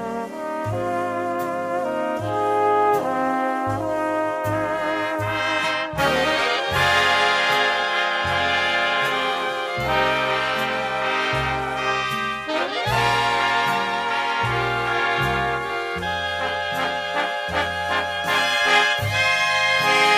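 A full big band plays the Christmas carol O Holy Night instrumentally, brass and reeds carrying a slow, swelling melody over steady bass notes, loud throughout with no voices.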